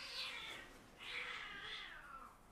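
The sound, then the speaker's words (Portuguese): Cats yowl and caterwaul in a brief fight, two drawn-out wailing cries, the second one rising and wavering, fairly quiet. “ok, eu não sei se vocês conseguem ouvir, mas de repente os gatos decidiram andar aqui à bolha e ouviu-se aqui um grande chinfrim.”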